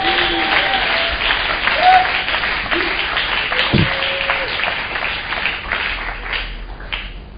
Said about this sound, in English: If you are a conqueror, put your hands together for the Lord.